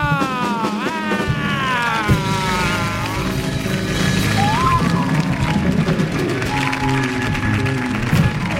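Steady, loud applause from an audience fills the whole stretch, a dense wash of clapping with music playing along underneath.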